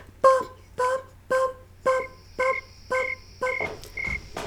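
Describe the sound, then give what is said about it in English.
A snowy tree cricket chirps in a steady, metronome-like rhythm, eight evenly spaced chirps, clear, over a faint low hum, with a thin high whine joining partway through. “That yeah, that snowy tree cricket sounds just like a metronome to me.”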